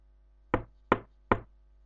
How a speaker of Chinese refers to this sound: 这时，门响了，有人在外面敲门。那声音不急不缓的。都快到凌晨了，谁在敲门？